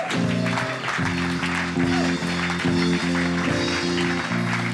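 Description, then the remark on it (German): A crowd at a church service applauds steadily throughout for people who decided for Jesus, dense clapping and a few cheers over sustained keyboard chords that keep playing underneath, without pause. “Lass uns den Menschen mal einen Applaus geben.”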